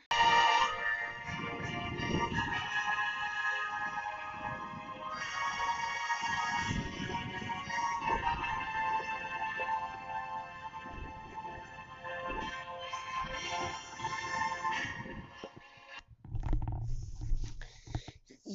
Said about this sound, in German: ihr habt gerade gehört, das Intro von Hyrule Warriors